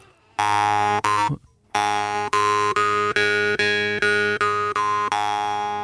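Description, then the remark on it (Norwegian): Overtone singing demonstration of a major scale, made while breathing and changing the size of the mouth: a steady, buzzy low drone with a bright whistling overtone that steps upward note by note and then back down, in short sustained notes split by brief breaks, with no talking. “For det er overtone Det er jo hvordan jeg får det fram.”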